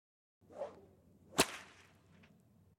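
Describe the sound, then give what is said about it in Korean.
A single sharp whip crack snaps out loudly near the middle, preceded by a brief swishing whoosh as the lash swings, with a low murmuring rumble underneath throughout. The whip lashes the backs of captured farm workers as military police lead them away. “군 경찰대는 그들을 노새처럼 줄을 세워 끌고 갔고 그들의 등에는 채찍, 주먹질, 조롱하는 말이 옷처럼 덮여 있었다.”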